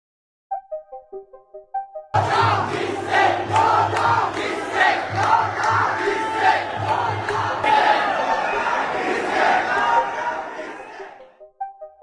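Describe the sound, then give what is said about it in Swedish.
An angry crowd of demonstrators chants and shouts loudly and continuously for about nine seconds, with splashes of demonstrators jumping into the pool of Sri Lankan president Gotabaya Rajapaksa buried in the din; short musical tones come before and after. “Det kan vara svårt att urskilja, men bland de skanderande upprörda rösterna hörs också människor som hoppar ner i en pool.”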